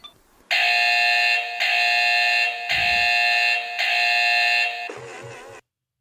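A loud, harsh electronic alarm buzzer from a hot-selling Christmas toy by a Spanish toy maker blares in long sustained bursts with brief gaps, a piercing tone, ending with a short warbling sputter before cutting off.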